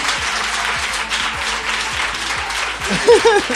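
Steady audience applause fills the whole clip, a dense, even wash of many hands clapping, with a brief voiced cheer rising over it just before the end.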